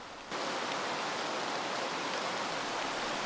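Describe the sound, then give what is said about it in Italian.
Heavy rain pours down in November in a steady, dense hiss that begins abruptly after a brief quiet moment and continues evenly without letting up. No one speaks. “Il prof ascoltava lo scrosciare della pioggia.”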